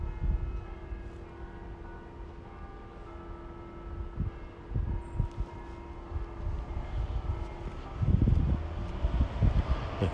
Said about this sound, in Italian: il semaforo è diventato verde, quindi le automobili come sempre rovinano tutto.